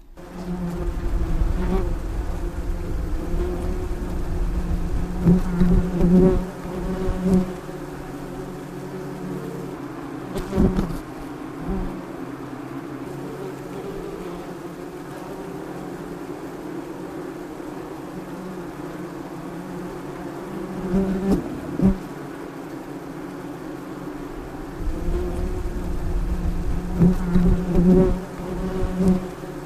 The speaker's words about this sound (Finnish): Se on muuten aika tuttu ääni tänä kesänä. Kyllä. Ampiainen. Joo, ennätysmäärä. Niitä sai hätistellä vielä loppukesästäkin, kun ne tuppas tulemaan joka paikkaan.